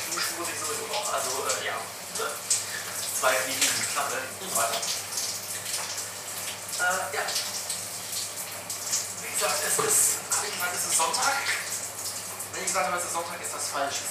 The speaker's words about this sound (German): Ähm, also warum nehme ich jetzt hier duschend einen Podcast heraus?